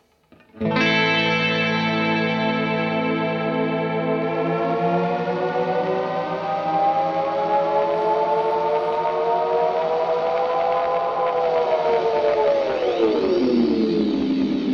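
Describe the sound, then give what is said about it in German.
A delay pedal in swell mode with the echo turned up, feeding back on itself into self-oscillation: a dense sustained tone of stacked harmonics that slowly bends and warps in pitch, swelling and swirling loudly for the whole stretch with no voices. “Und man kommt in Self-Oscillation-Land.”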